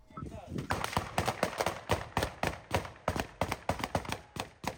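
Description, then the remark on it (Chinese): A burst of gunfire: a long string of sharp, loud cracks fired in quick, uneven succession, roughly twenty shots over a few seconds with brief gaps between clusters, during an armed raid by anti-Russian volunteer fighters at the town of Grayvoron in Russia's Belgorod region, near the Ukrainian border. “乒乒乓乓一阵枪声大作，反俄志愿军在南部的比尔哥罗德州，靠近乌克兰边境的格莱沃隆镇发起新一波的武装行动。”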